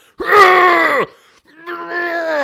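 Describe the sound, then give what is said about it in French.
A voice imitates a man's loud, strained yell in two drawn-out bursts separated by a brief pause, each sounding like a groaning holler that trails off. “Ouais, puis après ça, je me mets à hurler, là.”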